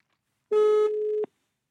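A single steady, mid-pitched telephone tone sounds for under a second as a call is placed, ending in a short click, with no voices.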